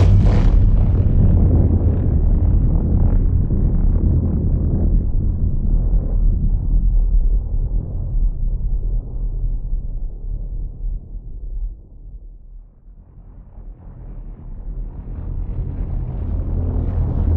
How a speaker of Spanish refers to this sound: Por ejemplo, uno de los directores de la discoteca del hotel afirma que cuando se quedaba solo a altas horas de la madrugada y con la sala vacía, se escuchaban ruidos perturbadores, sobre todo explosiones.